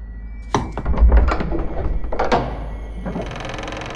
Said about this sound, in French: Elle avait à peine terminé son premier coup que la porte s'ouvrit en grand sur une vieille dame courbée.